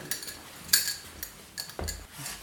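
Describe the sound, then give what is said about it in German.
A small glass jar of saffron is handled, with several light clinks and taps of glass against a hard surface, one brighter chime in the middle and soft scraping and a dull knock after it. “Also die Frage gebe ich gerne zurück und halte dir jetzt einfach mal ein Glas mit Safran unter die Nase.”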